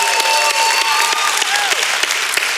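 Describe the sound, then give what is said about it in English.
A church audience bursts into loud, sustained applause with cheering and whoops rising over the dense clapping, without a break. “If you don't know that, uh, can we just make some noise?”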